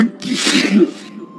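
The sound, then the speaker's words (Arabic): A single loud sneeze bursts out with a sharp, breathy explosion of air, trailing off into a brief airy exhale. “وفجأة عندها صار أنفي يؤلمني وشعرت بعطسة ستخرج مني في الحال حاولت أن أكتمها وأنفخ وأنفخ لأمنع خروجها لكنني عطست عطسة قوية جدا”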